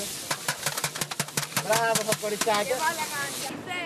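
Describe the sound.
Cooking sounds from a big pot of soup being readied outdoors on a square in central Athens, Greece: a run of sharp, evenly spaced knocks and clatters, then voices talking over continuing kitchen noise.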